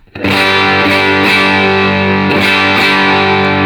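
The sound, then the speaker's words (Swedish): A heavily distorted electric guitar chord, played through a pedal with the gain set at nine o'clock, rings out loud and sustained with thick, saturated high-gain crunch, a few faint pick or string noises marking brief accents over the steady wall of tone. “Eh, om vi då kör eh, klockan, eh, vad har, har vi där då, på gainen? Klockan nio.”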